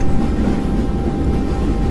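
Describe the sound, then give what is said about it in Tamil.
A steady, loud low rumble of a train speeding at high speed through the night past forests, hills, houses and villages, a continuous droning roar with no breaks and no voices. “காடு மலை வீடுகள் கிராமம் எல்லாத்தையும் தாண்டி அந்த ரயில் அதிவேகமாக பயணிச்சிட்ருக்கு”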